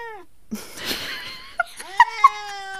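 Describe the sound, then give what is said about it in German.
A cat meows over and over, a string of drawn-out, plaintive, whiny calls, broken by a short burst of breathy, scratchy noise. “Die hört nicht auf. Ich weiß auch nicht, was die will von mir. Also kannst du vielleicht mal einen Katzenpsychologe bei mir melden?”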